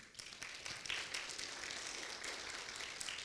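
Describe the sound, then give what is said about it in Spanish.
A crowd of people clapping together in a steady, dense wash of applause for the Lord that holds for a few seconds, with no voices over it. “Le pueden dar un aplauso al Señor.”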